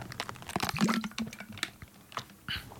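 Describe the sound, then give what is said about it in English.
Someone sips and swallows water, with a string of wet mouth clicks and small gulps in an irregular rhythm and no talking. “is that water? Yeah. Sounds delicious.”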